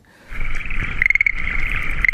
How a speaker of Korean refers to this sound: 어떤 노래에서 들으셨는지 한 번 더 들을까요? 개구리 소리.